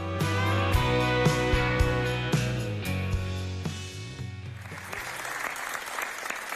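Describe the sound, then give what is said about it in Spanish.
A song with steady bass and sustained chords plays, then gives way to a dense, crackling burst of crowd applause for healthcare professionals in Asturias, continuing at a fairly loud, even level to the end. “Nunca un aplauso significó tanto.”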